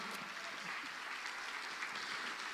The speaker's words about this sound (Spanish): Amén. Dele palmas fuerte al Señor.